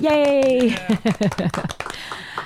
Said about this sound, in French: Encore une fois, grosse main d'applaudissements à vous tous.